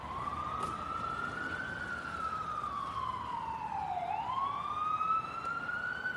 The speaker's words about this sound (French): De, typique de Californie, ou si à un moment il y a une ambulance qui passe, les bruits, enfin voilà, toute mon ambiance en fait sonore.